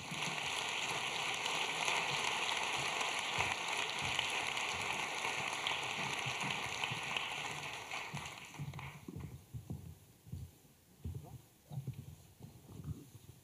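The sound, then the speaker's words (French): An audience applauds to welcome a guest expert, a philosopher-ethologist, onto the stage in a dense, steady wash of clapping that holds for about nine seconds, then fades quickly as someone begins talking over the last scattered claps. “philosophe éthologue, que je demande d'applaudir.”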